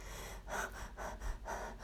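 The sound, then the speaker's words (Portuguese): Quick, shallow breaths in a steady panting rhythm, about four short airy breaths in two seconds, fairly soft, with no talking. “Ela é rápida, ela é rasa.”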